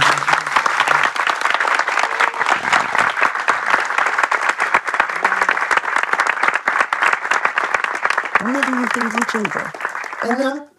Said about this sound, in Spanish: bueno, eh, vamos primero con un gran aplauso para el señor.